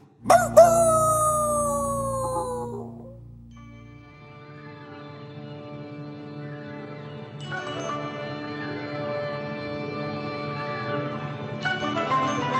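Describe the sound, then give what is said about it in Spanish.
The instrumental theme tune of a TV nature documentary opens with a loud, wailing cry that slides downward, then settles into sustained, layered orchestral tones that swell steadily, with no one talking. “¿Quién no se acuerda de esta sintonía?”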